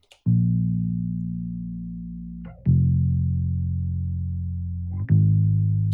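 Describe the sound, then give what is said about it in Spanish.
A Fender Light electric bass guitar plays three long, low sustained root notes one after another, each starting with a soft pluck and ringing out steadily, clear with no other instruments or voices. “Este bajo Fender Light a mí me gusta mucho y eh, suena así.”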